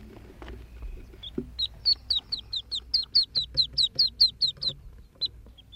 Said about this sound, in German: Jetzt hören wir den Notruf, also das Weinen einer ganz kleinen Krickente.